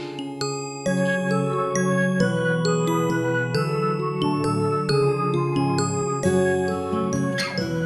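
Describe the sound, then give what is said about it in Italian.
A shop door bell jingles as the door opens, with bright, tinkling chimes that ring on and overlap for several seconds, fairly loud, with no talking. “mentre uscite fuori si sente il campanellio della porta che si apre”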